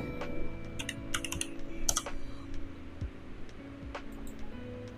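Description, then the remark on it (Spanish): Fairly quiet clatter of typing on a computer keyboard: irregular bursts of key clicks, busiest early on, then sparser taps over a steady low background hum, with no talking. “En BBC, ay chingado, en mis pinches teclados.”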